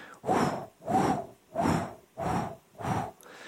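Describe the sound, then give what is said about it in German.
A voice imitates a pulsing noise heard in the ear that echoes the pulse with each heartbeat, with five steady, breathy whooshes, evenly spaced about once every 0.7 seconds, moderately loud, with no talking. “wie als wenn dein, dein Puls in deinem Ohr sich widerspiegelt und du hast ständig dieses Geräusch drauf.”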